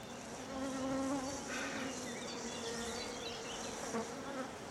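bees buzzing around flowers

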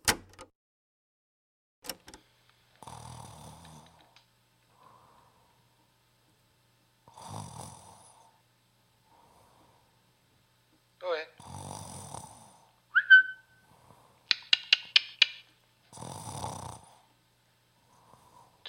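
person snoring

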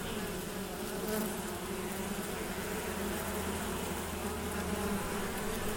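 honeybees buzzing

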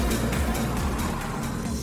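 car interior driving noise

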